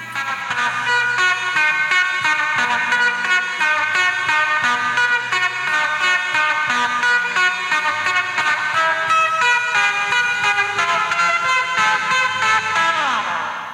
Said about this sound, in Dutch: Misschien is het een vorm van fingerpicking of zo. Nou, luister jullie even, want eh, ik heb het even geïsoleerd. eerst even hoe … het dan uiteindelijk speelt op, op de plaats.